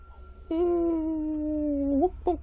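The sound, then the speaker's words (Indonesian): A voice imitates a dog's howl: one long, steady, drawn-out tone lasting about one and a half seconds that bends upward at the end, then a brief second yelp. “pokoknya longlongan anjing itu nggak biasa biasanya anjingnya cuma guguk guguk guguk malam itu nggak tahu tiba-tiba itu suasana itu nggak enak suasana sunyi sepi antara jam setengah 12 itu anjing itu gonggongnya seperti itu semua saut-sautan”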